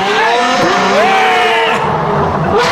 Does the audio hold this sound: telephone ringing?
no